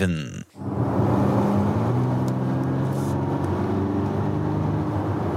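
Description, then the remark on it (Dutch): A DS7 SUV's engine runs with a steady, loud droning hum during a test drive, its pitch climbing slightly as the vehicle drives and accelerates, after a brief drop at the start. “We gaan rijden. De rijimpressie. Ja, en die die test de DS7.”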